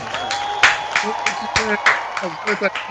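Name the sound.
audience applause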